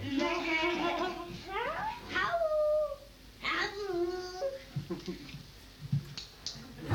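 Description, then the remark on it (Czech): A dog, on command, lets out several drawn-out, wavering, wolf-like howls in quick succession, fairly loud, with a few soft clicks and faint background noise between them. “Udělej vlka.”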